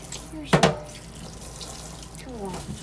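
Water runs steadily from a tap into a sink as someone washes dishes while chatting, with two sharp clinks of dishes knocking together early on and faint clattering later, someone murmuring quietly in the background.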